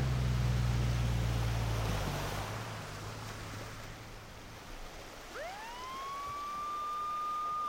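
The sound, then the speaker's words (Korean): Low rumbling wind or surf noise fills the first seconds, then a police car siren starts up in the distance, its wail rising and holding steady as it grows slightly louder while the police car drives toward the listener. “한참을 기다리니 저 멀리 경찰차가 사이렌 소리를 내며 달려온다.”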